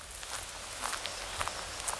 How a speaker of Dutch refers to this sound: Vanaf het grote hoofdpad slaan we af, het bos in. We lopen over een slingerend pad onder de bomen. Je kunt dit stuk van het bos nog steeds niet nat noemen, maar we passeren wel af en toe een modderig stukje waar we even omheen moeten lopen.